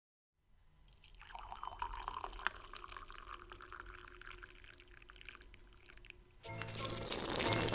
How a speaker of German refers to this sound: Musst du nochmal eingießen.